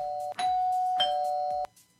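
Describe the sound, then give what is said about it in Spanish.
An electronic doorbell rings loudly, a sustained buzzy tone broken by sharp clicks that restart it a few times, then it cuts off into quiet. “Y es el momento de tocar el timbre.”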